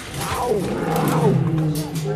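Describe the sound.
Two white male lions, 27 months old, roar in a deep, sustained rumble that holds for a couple of seconds, with people talking over it.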